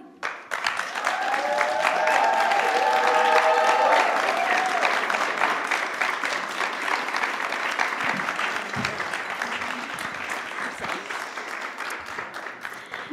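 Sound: audience applause and cheering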